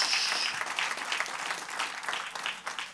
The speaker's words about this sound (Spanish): Den un aplauso fuerte a nuestro gran Dios.